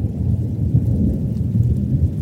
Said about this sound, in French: Il y avait un orage à quelques milles de là.